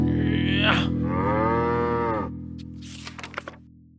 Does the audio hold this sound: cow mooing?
yes